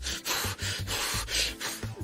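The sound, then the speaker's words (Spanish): Heavy, agitated, loud breathing: a quick, rhythmic run of forceful huffing breaths in and out, as a person breathes when angry, with no talking. “Ustedes cuando se enojan, ¿cómo respiran?”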